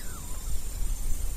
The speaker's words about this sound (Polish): Jeszcze, jeszcze was troszkę pomęczę tym hałasem Londynu.